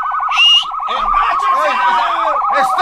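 A police car siren, pulling a vehicle over, wails in a fast, rapid warble, steady and loud throughout, with a higher whooping tone and voices coming in over it partway through.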